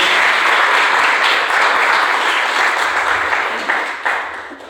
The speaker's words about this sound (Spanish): Denle un aplauso al Señor, por favor, en esta noche.